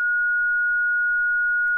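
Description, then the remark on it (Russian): A steady, piercing sine tone holds one pitch for almost two seconds, clean and loud with no other sound, then cuts off abruptly. “есть диапазон слышимых частот. Давайте диапазон, конечно.”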